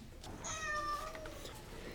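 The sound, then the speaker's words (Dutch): A single drawn-out meow from a black cat named Satan, clear, rising and then trailing off over about a second against a faint background hiss, with no talking. “En nu laten we ons voegen bij oude Nancy, Edge van Salem en haar zwarte kat Satan.”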